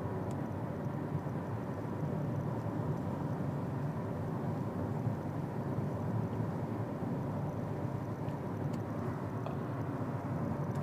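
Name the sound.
car interior ambience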